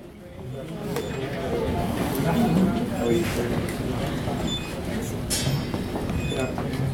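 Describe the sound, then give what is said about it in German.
Short, high electronic beeps sound repeatedly at irregular intervals over a steady murmur of crowd chatter and shuffling as all passengers' keycards are scanned at the muster stations of a cruise ship during the emergency drill. “Vor den Sammelstellen werden die Keycards aller Passagiere gescannt. Das ist das Piepsen, was im Hintergrund zu hören ist, damit sichergestellt wird, dass jeder Passagier auch an der Notfallübung teilgenommen hat.”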